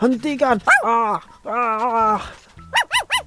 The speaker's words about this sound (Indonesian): Terdengar suara anjing menggonggong.